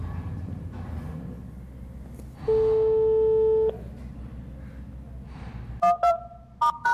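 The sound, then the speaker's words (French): A telephone ringing tone for a call in progress: one long, steady electronic beep, followed a couple of seconds later by several short, quick beeps, all fairly loud over a low background rumble. “Appel en cours.”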